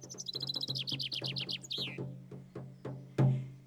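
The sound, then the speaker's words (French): Skylarks singing overhead in ideal weather, with a light wind and around 20 degrees early in the day: a rapid stream of bright, high trilling chirps that slows into sparser separate notes, ending with one louder call, over a faint low hum and no voices. “On aurait dit une petite chorale des alouettes au-dessus de nos têtes.”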